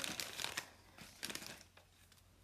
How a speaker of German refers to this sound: Ich versuche jetzt hier eine professionelle Schleife wenigstens reinzumachen.